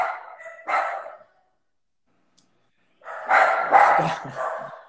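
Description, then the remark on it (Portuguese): Dogs at a house bark loudly at cars out front in two bursts: a short run of sharp barks, a pause of silence, then a denser, overlapping volley of barks and yips that carries on to the end. “Os, caras, os cachorros são malucos. Para carro aqui na frente de casa, buzina alguma coisa já começa.”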